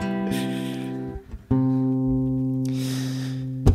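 A Korean pop song intro plays with sustained, buzzy synth chords that briefly drop out, return, and swell with a bright whooshing wash before a hit near the end. No voices.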